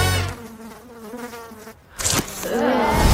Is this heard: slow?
no